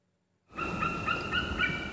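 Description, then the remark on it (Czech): High, thin whistling calls of white-tailed eagles repeat in short bursts over steady outdoor wind or water noise at Rožmberk, the largest fishpond in the Czech Republic, beginning abruptly after a moment of silence. “Slyšíte, co to píská? To jsou orlové mořský.”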